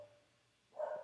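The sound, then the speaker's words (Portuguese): A single short dog bark rings out in the background near the end after a moment of near silence, fairly faint. “E desculpa pelo cachorro latinho de fundo, eu não consigo controlar o dog, né?”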